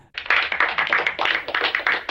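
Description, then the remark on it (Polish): A brief round of quick, steady hand clapping, dense and fairly loud, lasting about two seconds with no voices, applauding the first category being ticked off. “Kategoria pierwsza odhaczona, oklaski.”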